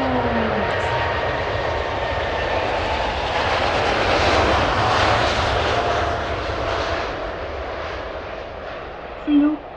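A loud, steady airplane engine roar fills the cabin during takeoff as the plane climbs higher through the clouds, a broad continuous rush with a rising swell in the middle, heard from inside the aircraft.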